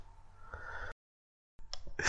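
A choking gasp, fairly loud: a strained, breathy intake, a brief pause of silence, then a harsher sputtering burst of breath. No talking.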